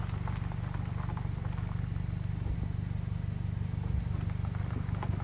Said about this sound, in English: Good, some good nighttime truck sounds.